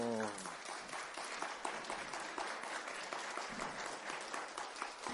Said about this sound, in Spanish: Así es que comenzamos. Aplauso.